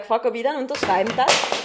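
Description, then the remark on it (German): A mobile phone clatters and rattles against a hard surface in a few sharp knocks, overlapping a man speaking. “Das war mein Handy.”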